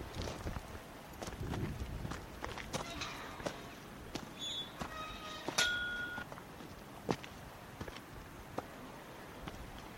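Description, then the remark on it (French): Steady footsteps of hikers crunch along a rocky mountain trail, several walkers' steps overlapping at an unhurried pace, with occasional sharp clinks of stone or gear and a few faint high whistles of marmots in the background. “écouter justement les marmottes et être vraiment dans nos pas.”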